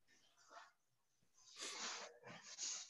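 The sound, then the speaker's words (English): A dog whimpers and whines in a few breathy, uneven bursts, the last ones louder and more drawn out, with a faint thin whine near the end. “He sounds sadder than a mother.”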